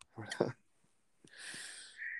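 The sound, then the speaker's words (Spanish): A single sharp sneeze bursts out, followed by a longer breathy, hissing exhale that trails off. No one speaks. “Jesús.”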